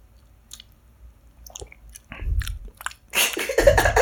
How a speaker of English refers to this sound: Put it on your tongue. I'll, I'll do it with you, and then just kind of just mix in your spit. Just kind of chew it a little bit. Spit it out.